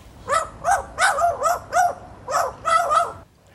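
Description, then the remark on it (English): A magpie named Maggie imitates a dog's bark, giving about nine loud, raspy yaps in an uneven rhythm, some paired in quick doubles, with no other sounds around them. “The barking Maggie and her mate now have 60,000 followers online, finding their friendship a happy distraction.”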